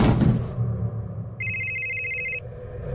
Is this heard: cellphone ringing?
yes